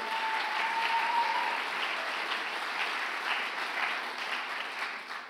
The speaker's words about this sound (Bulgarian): О, ако ръкопляскаш, ръкопляскай, като че наистина вярваш.